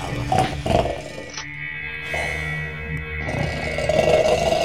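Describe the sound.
Loud, rough snoring heard through the walls: a few raspy, rumbling breaths follow one another with a gravelly, growl-like texture. No one speaks.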